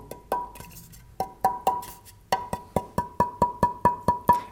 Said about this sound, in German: dieses ganz besondere Rauschen fängt im Grunde schon an zu singen. Also hier merkt man, das Holz will schon, wenn ich drüber streiche, will schon in seinen glockenartigen